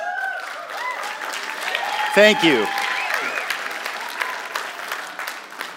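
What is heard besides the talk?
audience applause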